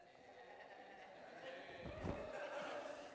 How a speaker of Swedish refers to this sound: Det är ju en hel fårskock. Men ni ser ju inte så vilse ut.